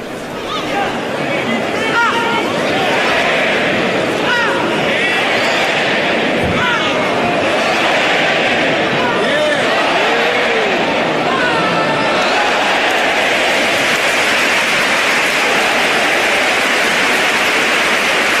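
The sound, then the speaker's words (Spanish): A huge bullring crowd at Las Ventas, Spain, roars and chatters in a dense, steady wall of overlapping voices, loud and unbroken for the whole stretch, with a few shouts rising out of the din, as matador Emilio Justo is given the puerta grande. “para quienes tienen Star TV, incluso para quienes están en la radio, tienen que escuchar esto. Esto es en las ventas.”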